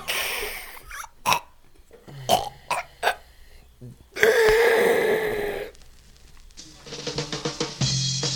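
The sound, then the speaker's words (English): Someone mimics an old man snoring: a few short throaty grunts, then one long, loud, rasping snort, trailing off into softer fluttering breaths. “Can you do an old man snore?”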